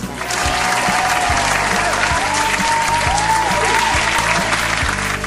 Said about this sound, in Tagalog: Dahil dyan, may premyo kayong maraming palakpak.